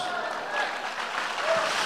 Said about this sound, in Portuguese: Aplauda o Senhor Jesus, querido. Diga glória a Deus, aplauda o Senhor Jesus.